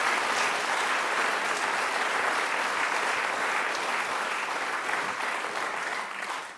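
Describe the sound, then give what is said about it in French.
Sustained audience applause, a dense, steady wash of many hands clapping at an even loudness for several seconds, tapering slightly at the end, with no one speaking over it. “Voilà, ben j'espère qu'on va l'applaudir très fort.”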